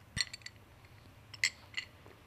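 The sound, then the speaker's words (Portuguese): Ice cubes clink against a glass of orange juice three times, bright ringing taps spaced irregularly and heard quietly, with no one speaking. “Um belíssimo sumo de laranja com gelo, com estas pagas de metal, pá”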